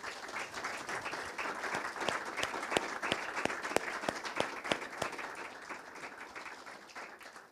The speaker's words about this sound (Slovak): Takže prosím všetkých týchto tieto tisíce našich podporovateľov, malých podporovateľov, odmeň, odmeňme teraz potleskom, lebo bez nich by sme tu neboli.